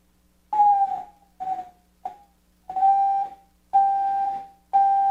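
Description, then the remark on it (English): A steady radio signal tone from a small transmitter, keyed by hand and received on a remote base radio. It holds around one pitch with faint harmonics and is keyed on and off six times in short and longer bursts against a low background hum, with no talking. “Okay, when I press the key, we actually we actually have a signal.”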